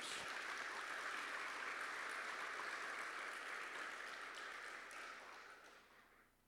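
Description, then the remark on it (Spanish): A church audience applauding steadily for the people connecting through social media, a dense wash of clapping that holds for several seconds before tapering off at the end. No one speaks over it. “Bienvenidos ustedes y pido a la iglesia que le demos un aplauso a todas las personas que están, se conectan con las redes sociales.”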